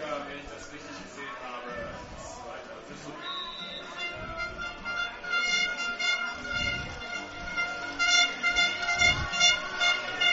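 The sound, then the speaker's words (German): Plastic horns blare and quack steadily from the stands at an American football game, blown by a few fans sitting in the grandstand, several overlapping tones droning over a murmuring crowd, fairly loud and swelling louder toward the end. “Was man hier so quäken hört, sind ein paar Haller, die auf der Tribüne sitzen.”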